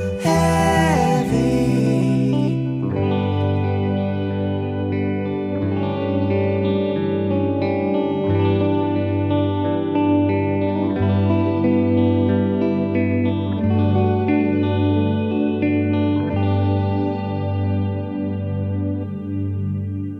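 A track from a new album plays steadily, with dense sustained harmonic tones and a strong low end, colored by chorus and distortion-like effects. It opens with a bright, noisy burst before settling into a continuous groove.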